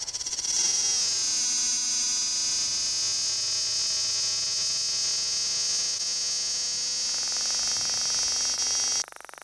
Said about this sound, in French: j'ai une quinzaine d'enregistrements de cigales que je ne sais pas à quoi ça correspond.